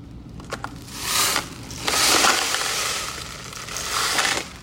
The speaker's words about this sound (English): As you turn it, the little beads and things in the boxes kind of crunch around.